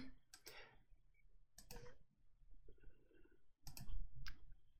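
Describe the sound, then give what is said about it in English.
A computer mouse clicks several times in irregular bursts while someone clicks through items in Restream, some clicks coming in quick pairs, each sharp and bright, over a faint low background hum with no voices. “okay, you know, I, I've had to rearrange these on Restream, and so they used to be in an order, and I could just click, click, click.”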